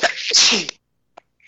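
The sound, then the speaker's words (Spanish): A single loud sneeze with a sharp breathy burst, followed by silence and a faint brief click; no one talks. “Salud.”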